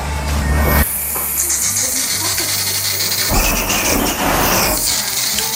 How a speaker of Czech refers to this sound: to je opravdu obrovský plamen. Ten pán, co nám to přišel zapálit, tak karamelizuje pěnu na té kávě, jestli tomu dobře rozumím.